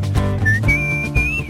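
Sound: person whistling a melody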